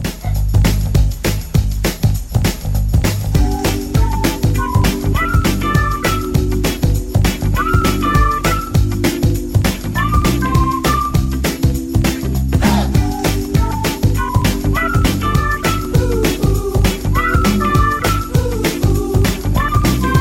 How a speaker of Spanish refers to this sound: Me voy hasta el otro lado de la, habitación para seguir con la parte musical, cortidísima y una buena rola para empezar a divertirnos.